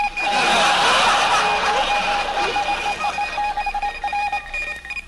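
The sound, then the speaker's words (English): A news ticker machine clatters loudly and continuously for the 12 o'clock news on Station MARX, with a bright, ringing metallic tone and no voices, turning choppier and more rhythmic toward the end. “What's new on the ticker?”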